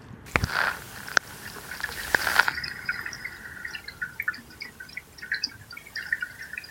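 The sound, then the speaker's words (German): Underwater stream flow heard through a hydrophone held into the water almost under a bridge, where the stream narrows and the water is compressed: a steady gurgling wash dotted with bubbly clicks and pops, with a few sharp knocks and a brief louder surge early on. No one speaks. “Also da fließt eindeutig schon eine Menge mehr. Genau, da passiert jetzt auf jeden Fall mehr.”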